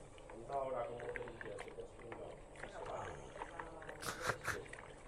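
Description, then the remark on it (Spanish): Running water splashes steadily as something is washed and rinsed, a continuous gurgling wash with a few louder splashes near the end, while voices talk over it. “Y ahora procedemos a lavarlo.”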